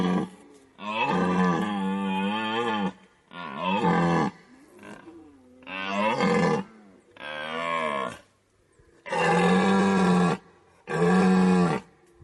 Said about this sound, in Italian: È proprio in questa stagione che la foresta riecheggia dei bramiti, che sono dei suoni profondi e gutturali. Sono i tipici richiami dei cervi per affermare la propria presenza e soprattutto per difendere il proprio harem.